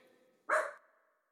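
A dog gives a single sharp, loud bark, short and punchy, then its tone trails off into quiet with no other sounds around it.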